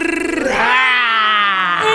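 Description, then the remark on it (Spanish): A single loud, sustained vocal shout lasting about two seconds, a person roaring angrily with a rough, strained tone that rises in pitch and holds steady, with no other sounds around it. “Estoy enojado, enojado, enojado, enojado y quiero gritar ah. y rugir.”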